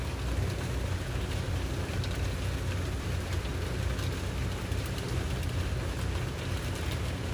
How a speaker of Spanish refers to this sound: Y suavemente pasa de enfocarte en tu respiración a enfocarte en el sonido de la lluvia. Si se te hace difícil enfocarte en el sonido de la lluvia, Simplemente sigue atento, atenta a tu respiración.